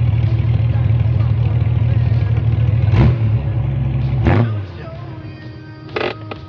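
A car engine idles with a steady low rumble as the car stops two houses ahead of a woman's home, a couple of sharp mechanical clicks sound near the end, then the engine cuts off, leaving quiet and a faint knock.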